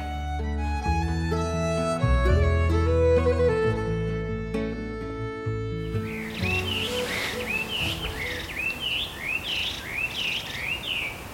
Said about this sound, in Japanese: すごい素敵な鳥のさえずりが聞こえますね、うるさいぐらいいいですね、えー、もうこの季節最高ですね